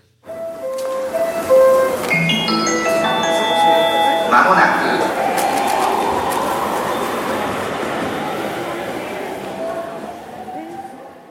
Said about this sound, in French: Allez c'est parti, jingle.